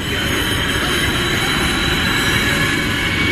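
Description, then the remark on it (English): A train rumbles past, a steady, loud roar of wheels and rails with a faint metallic whine on top, sustained without a break and with no voices. “That's the sea train.”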